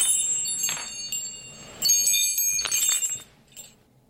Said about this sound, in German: magst du mal das Glöckchen läuten?